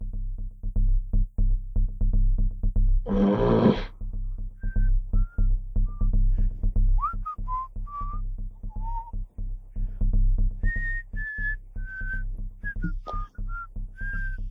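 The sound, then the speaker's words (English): Someone whistles a meandering tune of short, pure notes that hop between pitches, clear, over a low steady hum, with a brief rushing burst early on. “and whistling.”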